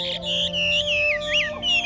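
Birds chirp and twitter continuously in the mountains in high, bright, sliding calls that overlap one another, with a steady low tone humming underneath and no voices.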